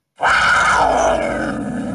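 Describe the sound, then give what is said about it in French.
A puma lets out a single loud, drawn-out roaring cry that starts abruptly and holds steady with a rough, strained tone, with no voices around it. “Voilà, c'est un cri de puma.”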